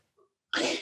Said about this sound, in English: I don't know if you can hear my dog in the background. I apologize for Oliver.